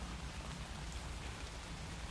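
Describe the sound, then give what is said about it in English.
Steady, heavy northeast monsoon rain pours down in a dense, continuous wash, drops pattering on surfaces with no pauses and no voices. “Hail to thee, northeast monsoon, you are here, destroyer and preserver, here, oh here.”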